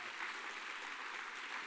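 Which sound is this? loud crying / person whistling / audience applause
audience applause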